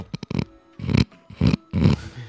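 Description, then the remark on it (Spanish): A voice imitates people straining to resist: a few quick grunts, then three long, rough, roaring groans like a revving motorbike, fairly loud with short pauses between. “Él se cree que son motos, pero no, es la gente que está, está resistiendo.”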